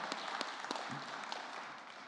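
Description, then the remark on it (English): An audience at a church applauds the band as it leaves the stage, a dense wash of many hands clapping at once with a few sharper individual claps standing out, holding at an even level throughout. “Yeah, you could have snuck out when I was praying, but if you want to stay up there now, hey, can we give the band a round of applause?”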